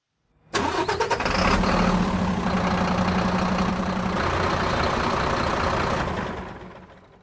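A truck engine cranks and catches, then settles into a steady, rumbling idle, with a low throb running throughout before it fades away near the end. No one speaks.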